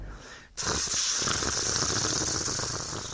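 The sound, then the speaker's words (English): A sudden burst of steady, hissing rain begins after a brief quieter moment, then pours on evenly and loudly as a dense wash of noise, with no voices present. “More rain. More rain.”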